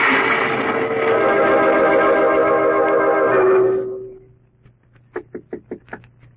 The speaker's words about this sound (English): Who's there? Who's knocking?